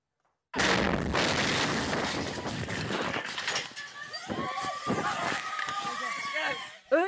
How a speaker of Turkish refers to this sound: Önce büyük bir patlama ardından çığlık sesleriyle bölündü karanlık. Doğalgaz kutusundaki patlama mahalleyi sokağa döktü. İstanbul Tuzla'da istasyon mahallesinde yaşandı korku dolu anlar. Bir apartmanın giriş katındaki doğalgaz kutusunda yangın çıktı.